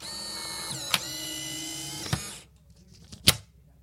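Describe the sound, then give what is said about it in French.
A Polaroid Lab printer ejecting a photo after a button is pressed, with the camera placed on its surface: a steady, high-pitched motor whir lasting about two and a half seconds, punctuated by sharp mechanical clicks, then a louder clack after it stops. “On appuie sur un bouton et la photo sort.”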